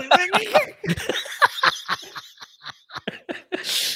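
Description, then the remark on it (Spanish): A loud coughing fit: a rapid string of harsh bursts that gradually weaken and space out, ending in a breathy exhale, with a laughing quality mixed in. “me entró la tos.”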